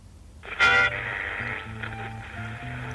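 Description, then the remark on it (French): A radio clicks on with a sharp burst of hiss and crackle, then settles into a steady band of static with faint low hum and tonal fragments, moderately loud, no voices. “Je vais mettre la radio. Il suffit d'allumer.”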